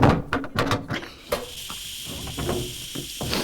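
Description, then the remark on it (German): A door is opened again, only a crack, with a few clunks and rattles, then a steady hissing sound carries on in the background with faint knocks. “Moment, sie machen die Tür wieder auf.”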